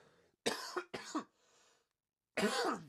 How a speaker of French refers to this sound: Voyez, juste en parler, ça me fait tousser.